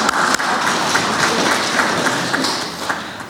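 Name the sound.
applause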